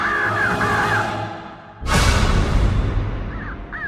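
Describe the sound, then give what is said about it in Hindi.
Harsh crow caws repeat in short bursts at night around a house, over a rumbling background, then a sudden rush of noise swells midway and more caws follow as everything grows louder. “कौओं की आवाज एकदम साफ सुनाई दे रही थी जो धीरे धीरे तेज होती जा रही थी”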